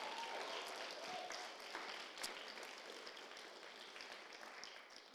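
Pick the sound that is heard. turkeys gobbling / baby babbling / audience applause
audience applause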